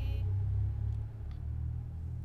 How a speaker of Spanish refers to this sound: Ya, ya se fue el carro.